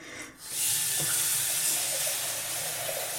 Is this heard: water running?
yes